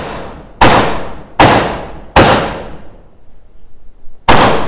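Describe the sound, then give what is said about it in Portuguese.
Four loud, resonant knocks on a wooden theatre stage floor, the traditional knocks signalling the start of a performance; the first three evenly spaced and the fourth after a longer pause, each ringing out briefly, with no voices. “As pancadas de Molière são isso mesmo, o início do espetáculo, a pancada.”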